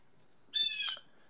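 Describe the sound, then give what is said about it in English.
A single harsh, raspy crow caw lasting about half a second, heard on its own against a quiet background with no talking. “Do you hear the crow in the background”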